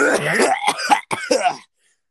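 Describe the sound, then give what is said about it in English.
A person forces out an exaggerated, theatrical cough, a couple of harsh, raspy, loud bursts with a brief gap between them before falling silent. “I just went for the most extreme cough that I could muster”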